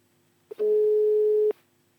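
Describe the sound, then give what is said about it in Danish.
A single steady telephone ringback tone sounds for about a second after a brief click as an outgoing phone call is placed. It is a clear mid-pitched electronic beep heard alone with no one talking. “Vi ringer til Lukas, som højst sandsynligt har tømmermand.”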